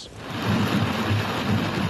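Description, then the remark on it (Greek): A sudden rainstorm squall in the village of Gialova, Messinia, Greece, roars as a dense, steady wash of heavy rain and wind, with a deep rumbling undertone, loud throughout, no voices. “ξαφνικό μπουρίνι έχει παρασύρει τα πάντα στο πέρασμά του στο χωριό Γιάλοβα τη Μεσσηνία.”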